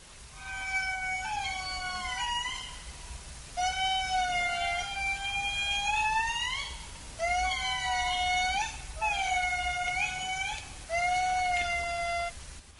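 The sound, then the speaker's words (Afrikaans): An indri's eerie, wailing song: five long, sliding tonal calls with rich harmonics, rising and falling in pitch, loud and clear with short gaps between them and no talking. “Nou, een van die interessante aspekte van hierdie diere is dat hulle kommunikasie is in baie gevalle gebaseer op roepe en so roep die inri”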